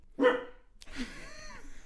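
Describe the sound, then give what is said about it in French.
A single sharp dog bark rings out, followed by a softer, drawn-out whine or yelp that trails off over the next second. “Le chien est d'accord.”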